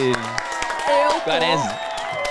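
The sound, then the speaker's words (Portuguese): An audience applauds with scattered claps while voices ring out over them, some whooping or calling in rising and falling tones throughout the short burst. “Palmas da nossa Esse plateia.”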